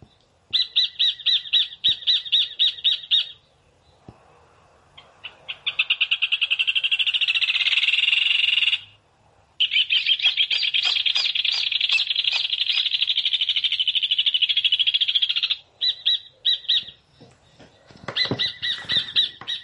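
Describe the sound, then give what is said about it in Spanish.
Rufous hornero birds call loudly, with rapid, ringing trills delivered in long excited bursts separated by brief pauses. No one speaks. “Estamos escuchando al hornerito, el hornero.”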